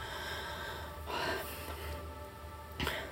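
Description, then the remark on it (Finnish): A person strains to breathe out: a breathy exhale pushes out in a noisy rush, followed by a shorter, sharper puff of breath near the end, moderately loud, with no talking. “Hengitä ulos. En mä voi.”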